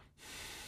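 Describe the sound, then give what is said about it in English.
A person imitates the sigh of a contented dog curled up and being petted, a single short, breathy exhale through the nose, soft and airy, starting after a brief pause and trailing off within a second. “and do a little exhale, little doggy sigh.”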